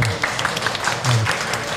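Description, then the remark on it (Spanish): A short burst of applause from a group, a steady crackle of many hands clapping at once, fairly loud with no voices over it. “Qué bonita pregunta, me gustó muy lindo aplauso.”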